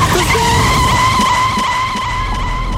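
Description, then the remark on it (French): In the rain, a car's tires screech in a long, loud, sustained skid during an accident, a steady high-pitched squeal with engine rumble underneath that holds for nearly three seconds without easing off. “mais qu'est-ce qui s'est passé Qu'est-ce qui s'est passé Vous avez eu un accident.”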